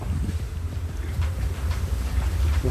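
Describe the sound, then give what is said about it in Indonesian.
Steady, rumbling wind buffets the microphone, a dense low roar with gusty flutters that stays loud throughout, with no voices. “angin masuk kan nih suara ini ya”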